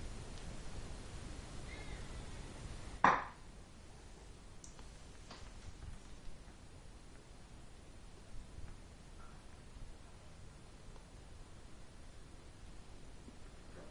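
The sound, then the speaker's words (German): A single brief, sharp cat meow rings out loudly over a steady background hiss, then only faint rustles and ticks follow; nobody speaks. “Was war denn das für eine Katze eben gerade?”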